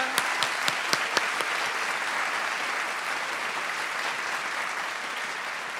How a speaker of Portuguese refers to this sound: Opa, uma salva de palmas para o pai que veio de Lisboa.